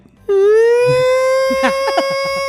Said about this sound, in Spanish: y ahí viene la ambulancia.